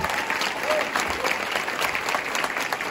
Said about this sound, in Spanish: ¿Cuánto lo creen? Para siempre otro aplauso gigante a nuestro Señor.